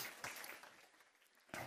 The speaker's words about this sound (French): Et on peut les encourager, on les applaudit bien fort parce qu'ils ont un gros défi.